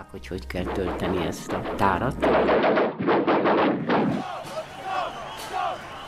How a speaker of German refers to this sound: Dort schossen zwei junge Männer mit der Gitarre, so nannten wir damals die Maschinengewehre, auf den Rundfunk. Ich füllte ihnen die Magazine, immer 72 Schuss.